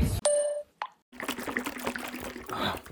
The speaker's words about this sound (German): Wir gönnen uns die nächste Suppe. Kann ja nicht sein hier dieses Dosenöffnen, das, das habe ich schon ganz gut drauf. Also da, da macht mir keiner was vor. Flinker Finger im Dosenöffnen.